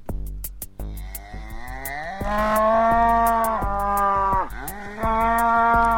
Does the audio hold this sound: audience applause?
no